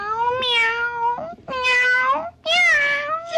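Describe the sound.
Three drawn-out cat meows in quick succession, each about a second long with a wavering, whiny pitch, loud with no talking.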